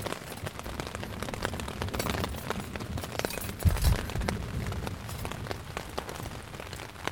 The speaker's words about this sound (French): généralement les, les orages ça tourne.